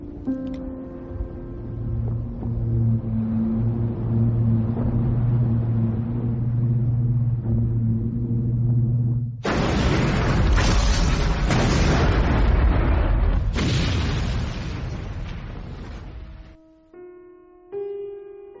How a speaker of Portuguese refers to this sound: No meio dos ecos da explosão, 1900 mergulhou no mar, na companhia do seu único lar, o cruz Virginia.